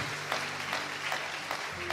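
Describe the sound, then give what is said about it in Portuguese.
A church audience applauds the Lord after a prayer, a dense wash of overlapping hand claps with rhythmic swells roughly every half second, over a faint sustained low hum. “Aplauda o Senhor.”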